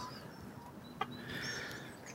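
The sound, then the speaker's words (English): Chickens cluck and murmur quietly after being fed on a foggy morning, soft scattered calls over a low outdoor hum, with one brief sharp tap partway through and no one talking. “I've just fed the chickens and collected two eggs.”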